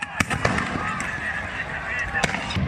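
Sharp bangs from tear gas launchers pop several times at irregular intervals as security forces try to regain control of rioters breaking into the Congress building, over a dense, chaotic crowd din of shouting and screaming, with glass shattering mixed into the uproar.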